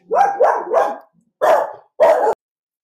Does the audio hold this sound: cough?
no